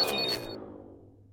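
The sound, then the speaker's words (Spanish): A lighter is flicked: a quick pair of sharp metallic clicks with a bright, ringing edge that fades away within a second, with no voices around it, as used by actress Jean Seberg in the French film Breathless (Sin aliento). “En la película francesa, Sin aliento, la actriz Jean Seberg usa un encendedor luego de hacer el amor con el actor Jean-Paul Belmondo.”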